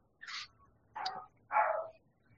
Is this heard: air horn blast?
no